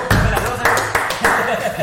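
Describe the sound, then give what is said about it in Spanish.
Loud applause on the Propulsivo show as two Huawei Y6 phones are presented for a giveaway, a dense wash of clapping with sharper claps surging roughly every third of a second and holding steady throughout. “Bravo, bravo, fuerte aplauso.”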